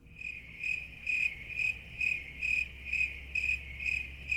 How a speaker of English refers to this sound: I can hear crickets out there.